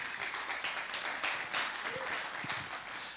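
An audience at a band's performance applauds as the band's guitarist is introduced, in a steady, dense wash of clapping that holds at an even, fairly loud level for the whole few seconds, with faint voices mixed into the crowd noise.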